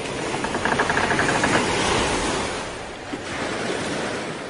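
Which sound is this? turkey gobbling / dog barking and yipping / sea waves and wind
sea waves and wind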